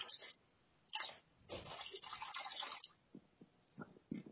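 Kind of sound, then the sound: human body sound, man urinating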